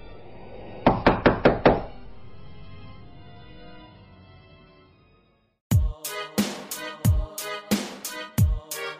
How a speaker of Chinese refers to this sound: 十，地球上最后一个人孤独的坐在房间里面。这个时候，忽然响起了敲门声。